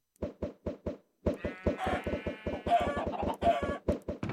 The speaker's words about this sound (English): Are you killing chickens with snowballs? No, not me.